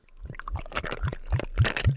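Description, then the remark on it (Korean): Water pours into a cup of ice in a quick series of gurgling glugs, about six splashy pulses in a steady rhythm, moderately loud, with no voices. “네, 이 소리는 얼음컵에 물 따르는 소리였습니다.”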